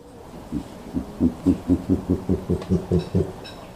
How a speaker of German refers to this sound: Ähm, und dabei machen sie dann eben diese, diese Lautäußerungen. Wir schneiden die auf jeden Fall jetzt auch hier mal rein, damit ihr mal hört, wie sich so ein Kasur anhört.